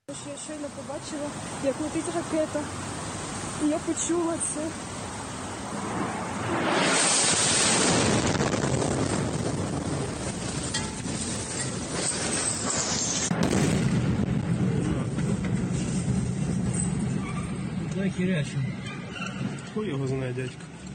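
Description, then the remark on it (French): A sudden, loud explosion bursts out in a street in Ukraine, a few metres from a young woman filming it on her phone, followed by several seconds of roaring, hissing noise and a lingering low rumble, with voices audible around it. “Cette jeune fille qui est dans la rue avec son téléphone et qui subitement donc assiste à cette explosion à seulement quelques mètres d'elle.”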